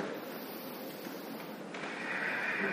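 A slow, deep breath drawn audibly through the nose or mouth while holding a yoga downward-facing dog pose, a steady airy rush that swells slightly partway through, moderately loud with no talking.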